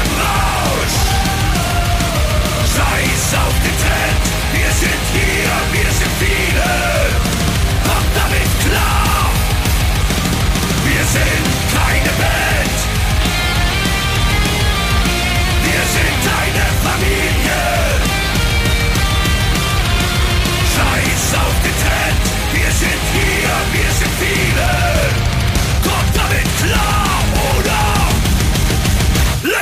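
A loud, dense song plays without a break, with pounding drums and thick, distorted instrumentation driving a steady rhythm, and what sounds like shouted vocals riding on top.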